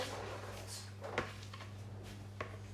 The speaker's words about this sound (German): Ähm, gib mir mal bitte den, ähm, den ähm, mach mal diese Schublade auf. Man muss die ziehen.